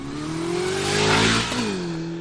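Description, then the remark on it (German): A motorcycle engine revs up and down, its harmonic whine rising in pitch, then dropping briefly before climbing again. It's loud, with no voices present. “Das kennt man ja schon aus dem Alltag, dass für eine Person ein Geräusch sehr angenehm schön sein kann, nehmen wir das Motorrad, und für eine andere Person das sofort lästig ist.”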